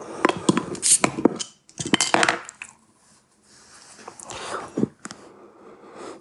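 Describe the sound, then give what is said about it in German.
A bottle of beer is opened with a flurry of sharp clinks and scraping rattles, a brief quiet pause, then softer fizzing rustle as the beer foams, and a few more glassy clicks. “Dann könnte ich auch mal die Flasche aufmachen.”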